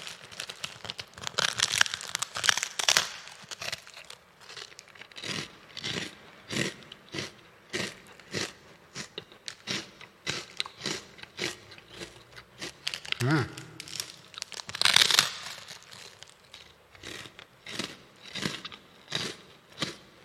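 Crisp crunching as someone bites into and chews a palm-sized honey rice cracker (honey okaki senbei), with reverb added to the microphone: a steady series of sharp crackly bites and munching, with no talking.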